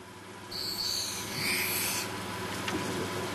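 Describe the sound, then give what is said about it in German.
A steady, high-pitched grinding rasp as the edges of a spectacle lens glass are smoothed on a hand grindstone at an optician's in Bamberg, a continuous scraping hiss for about two seconds over low background hum, then fading. “Jetzt müssen nur noch die Ränder ein bisschen geglättet werden. Das geschieht am Handschleifstein.”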